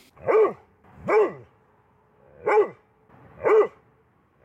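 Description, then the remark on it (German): A large Dobermann dog barks four times at an uneven pace, each bark deep and loud, with short silent gaps between them and no one talking. “Eigentlich Dobermann.”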